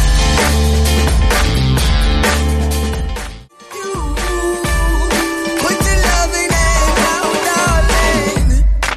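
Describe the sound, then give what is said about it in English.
An upbeat pop song plays loudly and continuously on the radio station Red FM, Cork's hit music station, with a steady bass-heavy beat, bright synths and sung vocals, briefly dropping out for a moment before kicking back in. “Let's just play another song.”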